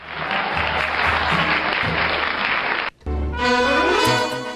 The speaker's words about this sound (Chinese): 掌声有请两位小选手闪亮登场。